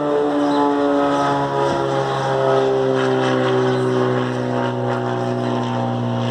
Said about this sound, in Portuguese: passando um avião aqui.